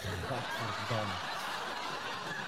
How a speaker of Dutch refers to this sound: En hij heeft een lachbandje. Ja, zeker. ik, heb, ik, ik, heb hem bij de hand natuurlijk voor dit soort eh, smaakvolle grappen.